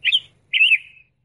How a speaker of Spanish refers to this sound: Es probable que no, yo sí. Estoy escuchando a todos los pajaritos